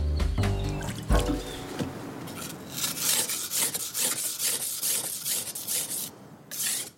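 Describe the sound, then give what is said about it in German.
Repeated gritty scraping strokes of an old kitchen knife with a narrowed blade drawn across a well-worn whetstone in a workshop, fairly loud, in a steady back-and-forth rhythm after a brief low tonal hum at the start. “Er wetzt ein altes Küchenmesser.”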